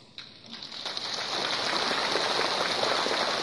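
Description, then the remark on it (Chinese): An audience at a Buddhist teaching breaks into applause, starting with a few scattered claps and quickly swelling into a dense, steady wash of clapping that holds at full volume to the end, with no voices. “想呢，因为呢，听你们的掌声，我就知道你们对真正的佛法，你们会不是太懂的。”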